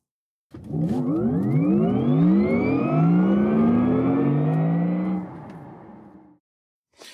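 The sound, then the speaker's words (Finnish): A car pulls away on a test drive and accelerates hard, engine pitch climbing steadily through the gears, loud, then easing off as it settles before cutting out. “No niin, nyt käytiin lenkki ajamassa ja Joo.”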